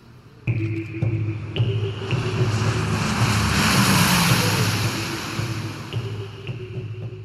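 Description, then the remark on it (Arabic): A large propeller military aircraft carrying the last American soldier leaves Kabul airport, Afghanistan, in August 2021. It drones loudly with a steady low engine hum and whining harmonics, swelling as it passes and then gradually fading away; no voices. “آب 2021 مطار كابول آخر جندي أمريكي بيطلع في آخر طائرة عسكرية رح تحلق بعيداً عن التراب الأفغاني”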